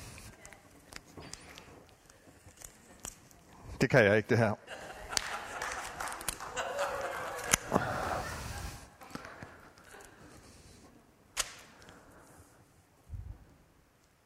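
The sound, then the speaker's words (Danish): Clicks, creaks and scraping from someone straining to snap a pair of scissors, with a sharp burst of effort partway through and a man talking over the handling noise. “Nu knækker jeg saksen.”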